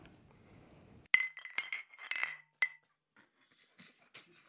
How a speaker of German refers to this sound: Und wir hören schon so das erste Geräusch von umfallenden Bierflaschen.